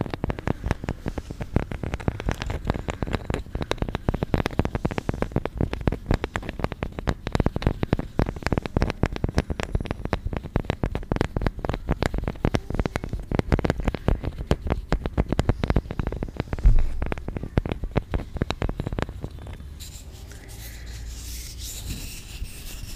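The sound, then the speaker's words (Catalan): Long fingernails scratch rapidly and steadily, producing a dense, dry rasping texture of quick strokes for about nineteen seconds before the sound drops away to a faint hush. “M'agrada tenir-les així, perquè puc rascar millor i a més puc fer així.”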